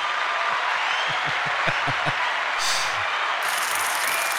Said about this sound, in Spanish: Hay aplausos por partida doble. ¡Qué demonios! Que no se diga que aquí no, no reparamos en gastos. ¡Venga, los aplausos.